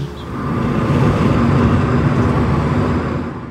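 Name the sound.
car engine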